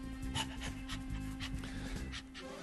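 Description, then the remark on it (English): A dog behind a door pants rapidly and steadily while looking through it, a continuous rhythmic huffing of quick breaths, with a faint low hum underneath and no talking. “There's a dog looking at me through the door.”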